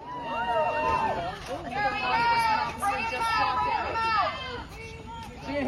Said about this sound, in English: So this is like a crowd of people outside of Brian Laundrie's house.